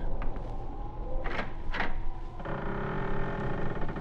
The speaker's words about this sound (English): They opened the front door.